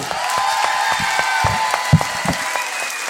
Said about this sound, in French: Applaudissements, applaudissements, applaudissements